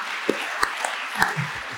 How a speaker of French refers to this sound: Applaudissements